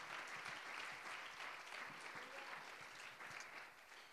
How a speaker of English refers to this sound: Le pueden dar otro aplauso a nuestro Señor. You give another clap offering to our Lord.